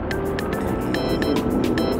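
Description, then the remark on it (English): A bright electronic alarm tone, previewed as a choice of sound for a 4:55 a.m. alarm, repeats in quick, evenly spaced chirps, playing moderately loud over a steady low rumble like a car interior. No one speaks. “What sort of alarm sound do you want?”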